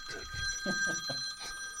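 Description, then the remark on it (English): A phone rings with a steady, high electronic tone that holds through the whole moment, while muffled voices and a bit of laughter murmur faintly underneath. “Uh, your phone? I don't know who's somebody's phone, but I...”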